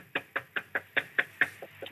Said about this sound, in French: Bon, la porte est fermée. Je vais la pousser. Ah bah non, c'est fermé vraiment. Je toque.